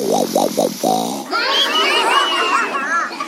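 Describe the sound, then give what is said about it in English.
A voice imitates the gunny wolf snoring in a told story: three rhythmic, grunting snorts, followed by a longer, higher wavering vocal sound, all fairly loud with no other talk. “He closed his gunny wolf eyes and he snored a gunny wolf snore.”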